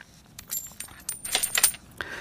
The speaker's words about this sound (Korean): 짤랑 동전 소리예요. 네, 이 소리가 일부에 나가는 노래 중간에 나올 겁니다. 한 번 더 들려드릴게요.